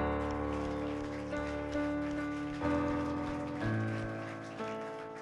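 An audience at a Christian worship service claps hands in a steady, dense patter, blended with sustained keyboard or organ chords that shift every second or so, all at a fairly even level.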